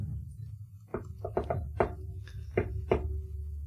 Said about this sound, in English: Lumi's going to walk up and just be like, uh, just knock